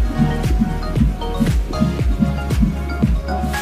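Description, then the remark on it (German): A baby's fetal heartbeat on an ultrasound Doppler during pregnancy, a fast, steady whoosh-whoosh pulsing about twice per second, loud over a low rumbling hiss, with no voices. “Das ist der Herzschlag Ihres Babys.”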